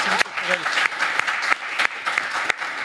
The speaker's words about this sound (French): À des applaudissements